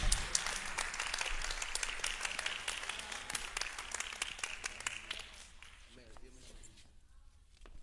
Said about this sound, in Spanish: Gloria al Señor. Dele fuerte, fuerte, fuerte el aplauso a Dios.